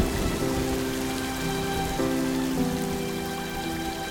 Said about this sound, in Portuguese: No entanto, em uma dessas tardes, formou-se uma grande tempestade